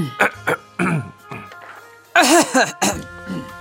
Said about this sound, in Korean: 우리는 그냥 가만히 앉아가지고 서로 얼굴을 멀뚱멀뚱 바라보며 연신 헛기침만 해댔습니다.